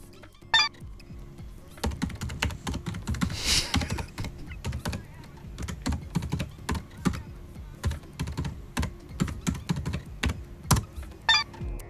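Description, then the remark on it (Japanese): Computer keyboard typing out a certain word, clear: a steady stream of rapid key clicks with uneven rhythm, occasional louder thumps from heavier keystrokes, continuing throughout with no voices. “ちなみにキーボードのタイプ音ではある言葉を打ち込んでいます何と打ち込んでいるでしょうか”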